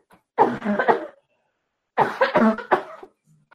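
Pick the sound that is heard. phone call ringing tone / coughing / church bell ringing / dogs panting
coughing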